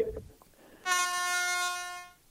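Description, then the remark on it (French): A single loud, steady horn-like blast from a makeshift time's-up buzzer sounds for just over a second, a bright, harmonically rich tone that ends abruptly, following a brief low murmur. “t'amener une sonnerie pour être sûr que tu dépasses plus.”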